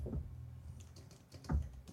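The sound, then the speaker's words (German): The lid of a newly delivered laptop with a grey keyboard and grey case is flipped open, with two soft, dull thumps about a second and a half apart and a few light plastic clicks between them, fairly quiet. “Ich habe die, muss das gerade mal aufklappen,”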